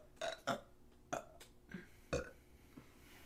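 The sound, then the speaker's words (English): A series of short, throaty burps comes in quick bursts, several close together and fairly loud, with brief quiet gaps between them and no talking. “Oh, you burped.”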